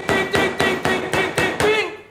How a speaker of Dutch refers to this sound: Nog een keer, kijk. Hamer, spijker, kop boven, punt beneden, stukje hout en... Ting, ting